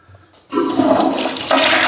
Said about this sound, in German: ja, das war der falsche Knopf. Die, die Klospülung wäre es gewesen in dem Fall.